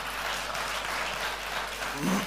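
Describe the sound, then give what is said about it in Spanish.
A crowd applauds the Lord steadily, dense clapping at a consistent loudness, with a faint voice briefly rising near the end. “Den un aplauso al Señor, por favor.”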